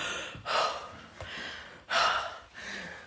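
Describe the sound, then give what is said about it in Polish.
A voice imitates the exasperated huffing a man directs at customers who speak weak German: four forceful, breathy exhales in an uneven rhythm, each a noisy burst of air, fairly loud with brief gaps between. “ja z nim rozmawiałam już po niemiecku, ja nie miałam z nim doświadczeń wcześniej, jak nie gadałam po niemiecku, ale on zawsze, jak są klienci, którzy słabo, on ich po prostu wyśmiewa albo sapie, w sensie, że”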